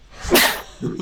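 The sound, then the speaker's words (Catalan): A single sharp sneeze bursts out, a loud breathy explosion that fades quickly, followed by a brief low vocal murmur. “Jesús!”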